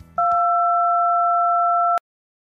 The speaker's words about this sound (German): Sie sind verbunden mit dem Tacheles Sorgentelefon, der einzig wahren Beschwerde-Hotline. Bitte hinterlassen Sie Ihre Nachricht nach dem Signalton.